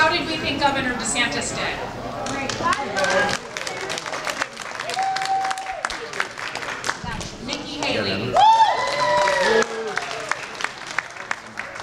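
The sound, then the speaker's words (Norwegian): A large audience at a political debate claps and cheers loudly and continuously for about twelve seconds, with whoops and raised voices rising above the dense, steady applause. The audience's cheering is used to gauge who won the debate. “Og på slutten av denne debatten så hadde de en eh, liten avstemning, hvor de målte ut ifra jubelen fra publikum eh, hvem som eh, vant debatten.”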